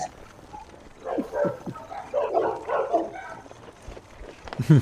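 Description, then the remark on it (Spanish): A cluster of excited barks and yips from dogs chasing after people comes in quick, uneven bursts, moderately loud, with a sharper noise at the very end. “Nos persiguen perros, dale rápido”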